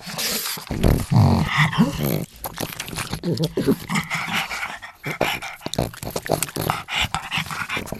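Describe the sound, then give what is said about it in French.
A pug named Gyoza growls and grunts, with snorting, pig-like snuffles and short harmonic whines over several seconds, breaking into busy rapid sniffs and grunts, being recorded by producers of the video game Halo for an alien's voice. “Ouais, c'est un carlin qui s'appelle Gyoza et que les producteurs du jeu vidéo Halo sont en train d'enregistrer pour faire la voix d'un extraterrestre dans une prochaine version du jeu.”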